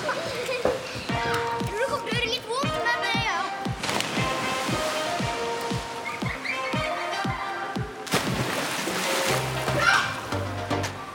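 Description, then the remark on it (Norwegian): A couple of loud splashes as children jumping many times from a diving tower plunge into pool water, with excited children's voices and a steady, rhythmic musical beat running underneath throughout. “… hopper ikke bare én og to ganger. De hopper mange ganger.”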